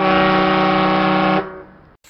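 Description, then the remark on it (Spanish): A ship's horn sounds a single loud, steady blast with a rich, buzzy tone, holding for about a second and a half before cutting off into a short fading tail. “Pero nada más, va la sirena náutica.”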